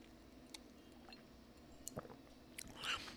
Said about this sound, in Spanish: Eh, voy a tomar un sorbo de té, porque se me está secando la boca, un sorbo.